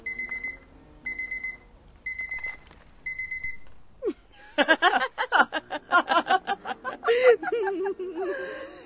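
An alarm clock rings in four short, evenly spaced electronic bursts, clear and close, then stops as several people break into laughter and lively chatter.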